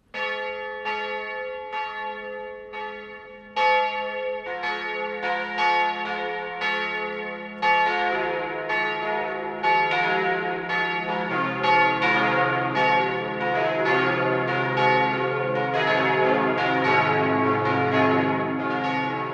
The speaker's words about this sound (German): Es ist 12 Uhr. Das Mittagsläuten kommt heute aus der Stiftspaarkirche in Altötting.